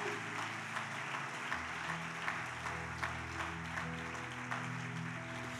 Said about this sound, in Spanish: Dele ese aplauso a Jesús para, para que no se sienta mal.